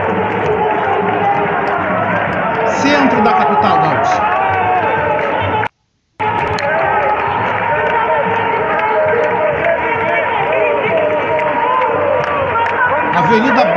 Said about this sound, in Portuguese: cidade de Medeiros completamente tomada, completamente tomada de manifestantes neste momento. Milhares né, de pessoas aqui lutando contra.